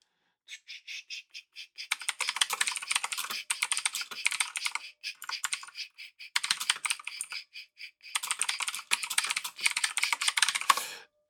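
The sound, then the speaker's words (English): Rapid typing on a computer keyboard, in bursts of dense clacking keystrokes separated by brief pauses, with no voices present. “I love my keyboard.”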